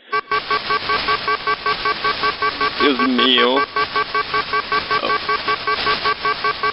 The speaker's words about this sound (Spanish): Simplemente estaba sonando la alarma. No, la alarma no se detiene. Es demasiado fuerte.